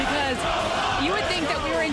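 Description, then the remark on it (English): A large stadium crowd of Detroit Lions football fans at Lambeau roars continuously at the end of the game, a dense wall of cheering with overlapping shouts and chants rising and falling, loud and sustained for the whole stretch. “There was an awful lot of blue amongst all the cheeseheads, an awful lot of noise all the way through the end of that game and into the Bose game.”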